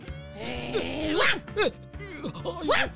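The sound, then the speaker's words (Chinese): A voice imitates the barking of the dog Baobao: several short, sharp yelps with rising and falling pitch, coming in quick bursts over a sustained vocal tone, moderately loud. “抱抱在旁边呢，汪汪叫也没有用。”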